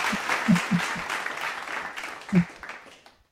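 A few seconds of lively clapping applause, many quick, overlapping claps at a steady loud level, with brief voices or laughter mixed in before the clapping tapers off and stops.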